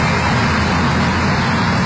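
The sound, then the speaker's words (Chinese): Steady, loud street traffic rumbles throughout, a broad wash of engine and road noise from passing cars and buses at a bus stop, with no voices standing out. “算好时间以后，他再到公交站点来接儿子。”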